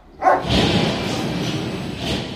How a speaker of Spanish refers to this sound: El ruido se sostiene a perpetuidad, nunca hay tregua, la música de las discotecas, el repique de las campanas de una catedral, los ladridos que salen de la perrera,